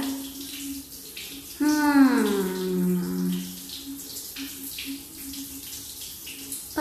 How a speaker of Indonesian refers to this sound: Ini aku lagi berbicara di mana? Suara menggema, ada air mengalir.